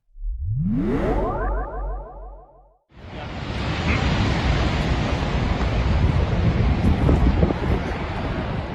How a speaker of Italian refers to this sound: quello che avete sentito e probabilmente avrete visto anche diversi video questa settimana era una parte del ghiacciaio della Marmolada che è crollato causando la morte di diverse persone la scorsa domenica 3 luglio.